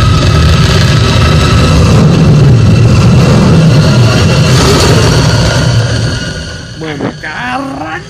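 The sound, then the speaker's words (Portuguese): The Batmobile's loud, deep engine in a Batman film roars and rumbles steadily for about six seconds, then eases off as brief high, wavering sounds rise and fall at the end. “mano, montou roncando depois e. O, o Batmóvel, ele é previsto ao longo do filme todo.”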